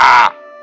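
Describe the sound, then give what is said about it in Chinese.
A single harsh, raspy crow caw, loud and short, cutting off abruptly and leaving a faint, steady ringing tone behind it. “不过有时候乌鸦在叫，呱”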